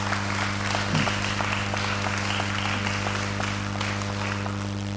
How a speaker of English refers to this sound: So as well as these guys and these guys, just a bit of round of applause for those who served over the summer.